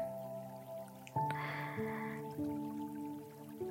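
Rain drips softly and irregularly onto a damp house wall over a steady, sustained musical drone, with a brief hissing wash of water partway through; no one speaks.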